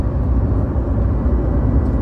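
A car engine roars loudly and continuously up close, a dense low rumble that holds steady throughout, sounding like it is being pushed hard. No voices are heard.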